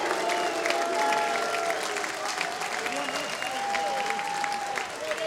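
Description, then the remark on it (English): A large baseball stadium crowd chants the player name "Hoover" in unison after Lane Hoover's amazing catch at the wall: a long, drawn-out "ooo" that resembles booing but is not, over a steady roar of cheering and clapping for several seconds. “You're going to hear the fans not booing, saying Hoover.”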